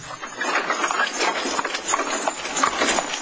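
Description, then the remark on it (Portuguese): Steady clip-clop of horses' hooves on a hard street as an old coachman sets the horses off, pulling a coach along with a rough rolling clatter, continuous, with no one speaking. “Com um risinho irônico e malicioso, o velho cocheiro acionou os cavalos e”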